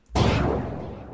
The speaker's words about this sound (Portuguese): Aí, tipo, dá um tiro, né?